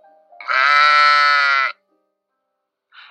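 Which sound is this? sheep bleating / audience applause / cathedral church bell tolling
sheep bleating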